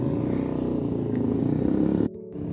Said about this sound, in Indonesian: Namun memang sesekali ada suara bising motor karena kami di pinggir jalan